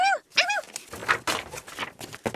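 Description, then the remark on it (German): A dog named Hundling gives two quick, high-pitched barks at a very old book, followed by a stretch of scuffling, shuffling noises with no talking. “So dauerte es auch gar nicht lange, bis Hundling bei einem ganz ganz alten Buch bellte.”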